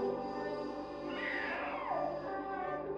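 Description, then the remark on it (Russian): A baby cries out once in a drawn-out, wavering wail that rises and then falls, heard over a steady background drone with no one talking. “«Это ребенок. Он плачет, слышишь?»”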